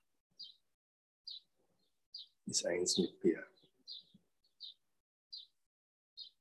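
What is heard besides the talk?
birds chirping and singing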